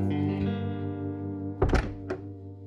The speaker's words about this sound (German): Kannst du bitte die Tür zumachen? Von draußen.